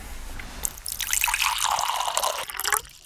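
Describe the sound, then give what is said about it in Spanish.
Water pours steadily into a glass for drinking for a few seconds, a bright trickling that rises slightly as it fills, then stops abruptly near the end. “Tomamos un poquito más de agua.”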